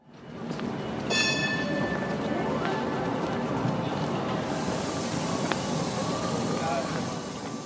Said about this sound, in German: wir fahren jetzt hier im 3-Tram.